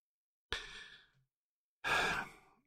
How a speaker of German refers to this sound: Schweres Atmen. Nein, ja klar, ein, ein bewusst theatralisch inszeniertes schweres Atmen